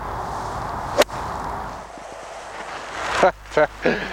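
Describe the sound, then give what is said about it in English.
A single sharp, crisp crack of a Rogue X golf iron striking a ball, loud over a steady outdoor wind hiss, followed a couple of seconds later by brief bursts of a voice. “That really feels like it's zipped off the face. You can you can hear it the sounds, not too hollow.”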